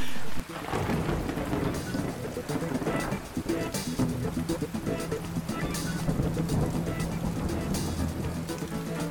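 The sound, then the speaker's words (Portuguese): Steady heavy rain pours continuously while low, rolling thunder rumbles underneath, with a few sharper crackles breaking through; a loud, full storm with no voices. “do que a gente precisa é tomar um banho de chuva, um banho de chuva.”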